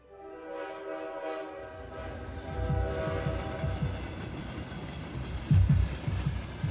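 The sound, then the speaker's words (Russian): A train horn sounds briefly, then a heavy train carrying young men toward the battlefields rumbles along the rails with a steady, rhythmic clatter of wheels over track joints, loud, with no voices. “Здоровые, ясноглазые, славные парни едут на поездах к полям сражений.”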